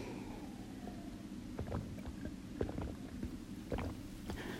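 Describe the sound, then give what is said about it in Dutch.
Someone takes a quick drink of water: a few soft gulps and small wet clicks over a low, steady rumble, with no talking. “Nou, ik ga weer even snel een slokje water drinken”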